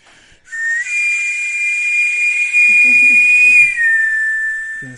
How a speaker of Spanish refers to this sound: Hasta el sonido mexicano de los camotes.